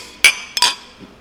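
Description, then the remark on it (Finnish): Glasses clink together in a toast, two bright, ringing taps about a third of a second apart, fairly loud, with no voices over them. “Tuli niin monta nimeä peräkkäin, että otetaan varmaan kulaukset. Kippis.”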